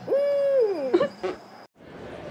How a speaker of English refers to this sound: Well, here is a personal favorite of mine called Endangered Owl Hiccup Farts.